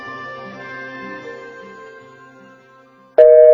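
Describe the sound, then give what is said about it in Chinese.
A hum of layered steady tones drifts for about three seconds, then a sudden loud, harsh electronic tone cuts in at the end: a fault on the telephone line during a call to the royal grocery store to order burgers. “但是通话线路出了一点故障。”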